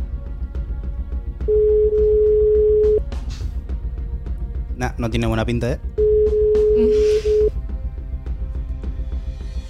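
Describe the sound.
Two long, steady telephone ringing tones sound over a phone line, separated by a pause, while a man talks briefly. The call is not answered and reaches a Movistar voicemail.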